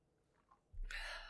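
A soft thump followed by a breathy, hissing slurp lasting about half a second as someone sips coffee from a glass. No one speaks.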